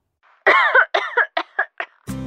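A quick run of about six soft coughs, close by, the first ones longer and fuller, the later ones shorter and lighter, before an abrupt harsher sound cuts in at the end.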